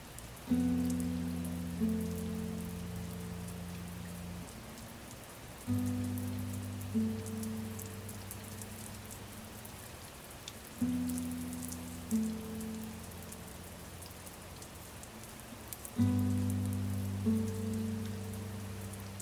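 Steady rain hisses throughout, with a soft synth-like chord swelling in about every five seconds and fading. No one speaks.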